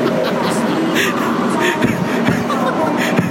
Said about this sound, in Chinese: 好了，火车进站了，我要上车了。